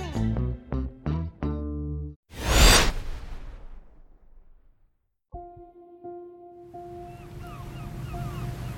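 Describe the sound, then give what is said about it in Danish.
After a few short musical notes and a loud whoosh, a ferry sailing from Germany to Denmark hums with a steady engine drone at sea beneath cold rushing wind and the wash of waves, continuous, with no one speaking. “Den kolde vind har sit tag i færgen fra Tyskland til Danmark – den 45-årige kigger ud på havet”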